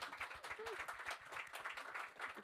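Steady, dense audience applause, many hands clapping at once in a continuous rapid patter that stays loud throughout, with a brief faint vocal sound mixed in.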